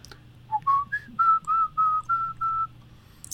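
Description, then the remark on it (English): A person whistles a short, bouncy theme tune, about seven clear notes rising then holding steady in a quick, even rhythm, with no talking. “Yeah, I mean, I've been whistling the tune ever since I watched it, so it's obviously very catchy.”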